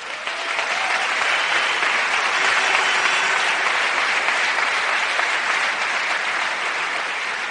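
A large audience applauds steadily, a dense, sustained wash of clapping that stays loud and even for several seconds without any voices standing out.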